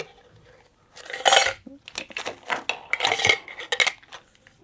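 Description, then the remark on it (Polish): Coins clink and rattle together in a small cup, a bright metallic clatter in uneven bursts with faint ringing tones, continuing for several seconds with no voices. “żeby pokazać Wam, ile jeszcze objętości można zaoszczędzić, bo w tym kubeczku zmieściłem jakieś około 50 tysięcy, tak szybko licząc”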